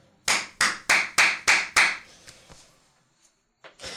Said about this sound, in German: Ich kann dafür super laut klatschen, Leute. Es kommt bestimmt in der Aufnahme richtig geil, aber wenn ich meine Hände spreiz, habe ich hier so einen Zwischenraum.